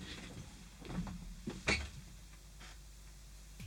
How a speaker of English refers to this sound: let me just check my studio door. Hang on, let me just swing it open in case anything's happen- happening.